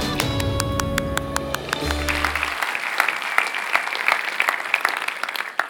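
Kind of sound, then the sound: crowd, audience applause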